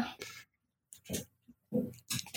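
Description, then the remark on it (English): A dog snuffles and snorts, several short wet, breathy bursts in an irregular rhythm separated by brief silences, with no talking. “My dog just showed up.”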